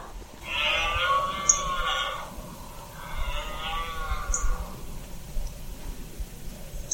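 A red deer stag with large antlers, just behind a group of hinds, bellows during the rut: two long, rough, harmonic roars, each lasting about two seconds, separated by a short pause, loud over a faint rustling background with no talking.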